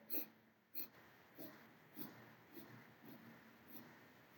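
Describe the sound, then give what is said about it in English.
A steady run of ten short, sharp nasal sniffs making up one inhale of a nostril breathing exercise, evenly spaced about twice per second, fairly soft, each a quick puff of air through the nostrils with no talking. “This is your starting position, and then we will do in we'll do an inhale in 10 strokes. So what it would sound like is”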